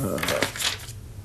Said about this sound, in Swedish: jag bläddrar i mitt och du bläddrar i ditt och så väljer vi.